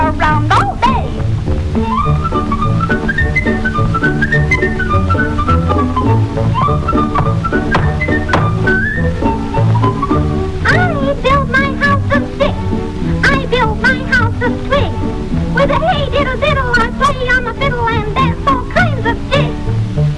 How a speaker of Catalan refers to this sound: anem a sentir el tema principal que es va fer molt famós de Los Tres Cerditos